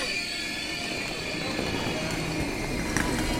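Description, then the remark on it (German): A train at the railway station in Würzburg gives a steady rumble for a few seconds, with thin high-pitched wheel squeals ringing over it and a brief clank near the end. “Ihr Zug hatte Verspätung.”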